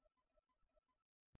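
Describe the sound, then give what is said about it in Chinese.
A voice narrating a children's story imitates a little hedgehog clearing its throat before reading a book aloud. There are a few short, rhythmic voiced hums, then a brief pause and one sharp, sudden cough-like burst at the end. “他清了清嗓子。”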